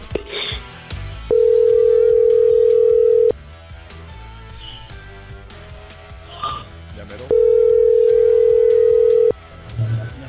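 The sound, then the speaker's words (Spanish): A phone line rings back with two long, steady single-pitch tones, each about two seconds, separated by a pause, over a faint murmur of background voices and music. “Está marcando, está marcando.”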